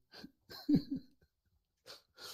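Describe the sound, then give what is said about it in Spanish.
A man snoring: heavy, raspy breathing with a snore-like rumble, coming in four bursts with short gaps, the second one loudest and most throaty. There is no talking. “Escucho su respiración degenerada. Está roncando, ¿no?”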